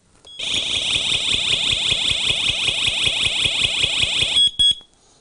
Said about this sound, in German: Darunter, ganz schwer zu erkennen, ist eine SOS-Taste. Wenn ich die auslöse, dann gibt es Krawall. Dann wird nämlich sofort ein Alarm ausgelöst. Achtung!